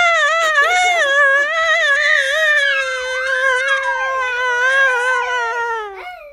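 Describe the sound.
A voice imitates the long, loud, high-pitched scream of someone riding in a speeding car down a spiral slide from the top of a building to the ground floor; it wavers up and down for about six seconds, then slides downward and cuts off abruptly, with no other talk.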